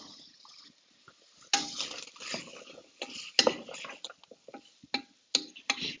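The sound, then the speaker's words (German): Wet, sloshing stirring of a thick stew in a pot after celery is added, with irregular splashy bursts and occasional sharp clinks of a spoon against the pot, no talking. “Gut, dann kommt einfach diese Sellerie noch mit in den Topf. Ja, dann rühren wir hier nochmal durch.”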